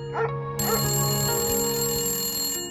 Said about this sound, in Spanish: El perro ladraba y el teléfono estaba sonando. Y siguió sonando mientras el hombre abría la puerta y palpaba la pared en busca del interruptor.